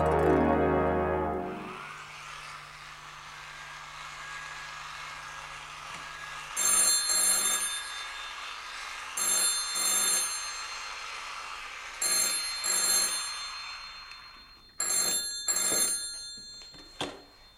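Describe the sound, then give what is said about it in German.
An old telephone bell rings in repeated bursts, each a pair of loud metallic trills with short pauses between, after a brief low thud at the start. “Es hat endlos geklingelt.”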